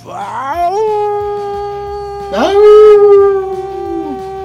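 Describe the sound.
A person imitates a wolf howl, letting out two long, loud howls that each swoop upward and hold a steady wavering note, with faint rhythmic background sound underneath.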